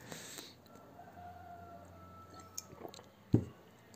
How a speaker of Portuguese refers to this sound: Tomei água.